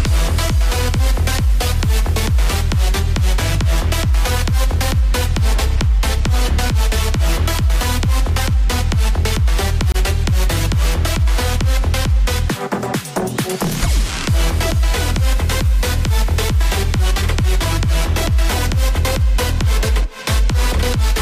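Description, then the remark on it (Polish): A loud music track played on air on the radio, with a driving, steady beat and dense layered synths, plays continuously, briefly breaking into a rising sweep midway before the full beat returns. No one speaks. “no to posłuchajcie. czekamy, posłuchajcie, dajcie znać, czy wam się podoba, bo jak coś, to poprawki jeszcze zrobią.”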